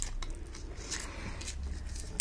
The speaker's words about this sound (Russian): Ну, слышно вот это жевание.